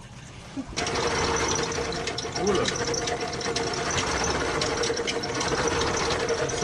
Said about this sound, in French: Et tout ça, on va le faire avec une machine à pédales qui nous sert entre autres à bricoler, à faire de la couture, mais qui est aussi un super mixeur